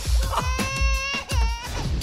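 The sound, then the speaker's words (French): A baby cries in loud, high-pitched wails, two drawn-out cries with a brief catch of breath between them, over a low rhythmic thumping in the background. “Il est à qui ce bébé”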